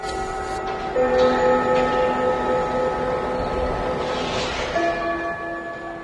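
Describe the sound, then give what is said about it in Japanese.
A school chime rings out alone, marking the end of the first period, its sustained bell-like notes stepping slowly from one pitch to the next in a steady, ringing melody that fills the whole stretch. “そろそろお時間がはいやってきました、えー、チャイムの音を控えてきましたので、えー、以上1時間目のお時間でした。”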